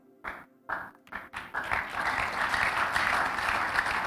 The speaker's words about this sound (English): I can lose your clapping. It means nothing to me.